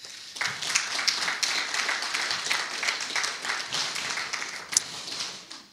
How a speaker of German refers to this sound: Gottes Gegenwart wollen wir den Applaus geben.